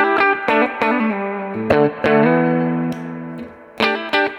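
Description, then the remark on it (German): A distorted electric guitar with a humbucker pickup plays a short riff: sharp picked chord stabs and a few sustained, thick, harmonically rich chords, fairly loud, with no talking. “Mm, das finde ich ist hier, also der Humbucker klingt halt gut nach Humbucker.”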